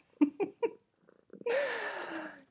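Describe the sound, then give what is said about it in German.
A pet cat purring: three short rhythmic pulses, then a longer, raspy, sustained rumble lasting about a second, with no one talking. “Meine Katze ist wieder dabei und schnurrt und schnurrt und schnurrt.”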